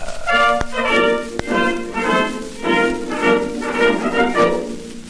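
An old 1930 revue song plays from a worn record: a sung vocal line in short, repeated phrases over light accompaniment, with a couple of sharp surface clicks near the start.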